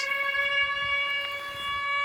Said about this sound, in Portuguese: Imagens das janelas e o som das sirenes.